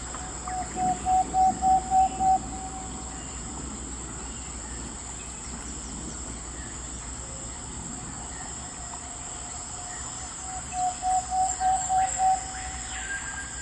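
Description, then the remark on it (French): Nighttime rainforest animal sounds: a steady, high insect drone fills the air, while two bursts of about six quick, hooting pulses ring out, one at the start and one near the end. “J'imagine qu'il doit y avoir des, bruits d'animaux euh, en plein milieu de la nuit qui doivent être euh, hallucinants”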